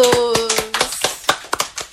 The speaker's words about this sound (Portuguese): Aplausos!